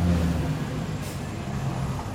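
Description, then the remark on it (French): Steady roar of heavy road traffic on major roads at night, with cars, trucks and buses rumbling and a brief hiss like an air brake partway through, no voices. “Le bruit des voitures devient plus important sur les grands axes, un petit peu plus angoissant les épaules qui se rétractent.”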